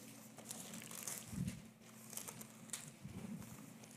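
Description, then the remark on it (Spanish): Many Bible pages rustling and flipping at once as many people turn to John chapter 14, a soft, scattered papery crinkle with no one speaking over it. “Se oye bonito las Biblias cuando sus hojas están caminando.”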